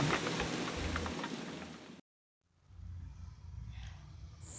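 Rain falls in a steady, dense hiss, loud for two seconds, then cuts to a brief silence before a softer patter of rain returns.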